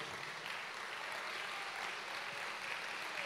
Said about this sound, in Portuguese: Na verdade, você tinha que ficar em pé e aplaudir. Esse nome. É isso mesmo. É um tributo de honra.